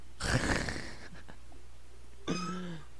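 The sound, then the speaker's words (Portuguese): A person uses their voice to imitate a dial-up modem connecting to the internet: a harsh, hissing screech, a few short clicks, then a brief steady buzzing tone. “É o barulho da internet conectando.”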